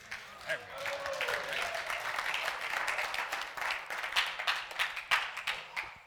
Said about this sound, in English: Round of applause. Let's hear it.